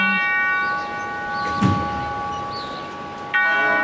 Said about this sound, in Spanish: La campana, el sonido de la campana en esa barra golpeada con un mazo de madera por el primer músico de la banda. Golpea en la parte más alta.